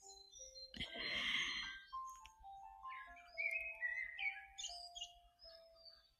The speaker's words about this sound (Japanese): まさかの、まさかのこのね、小鳥とピアノの音を聞きながらのはい。